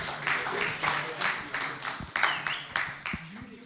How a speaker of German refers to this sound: Hey, ja, gebt ihm einen kräftigen Applaus.